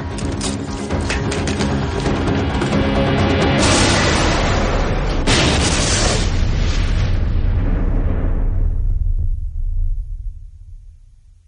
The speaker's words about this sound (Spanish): Uno de los agentes lanza una granada al interior a través de una ventana. ¡Tapaos los oídos!